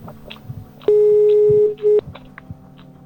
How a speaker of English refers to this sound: I dialed the correct number.